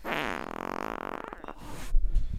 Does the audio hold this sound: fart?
yes